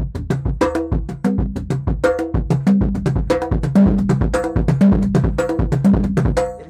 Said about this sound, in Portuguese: Eu vou pegar a baqueta. Como é que é a baqueta? Para alcançar esse tambor aqui, eu preciso de um movimento específico. Eu não posso fazer simplesmente assim.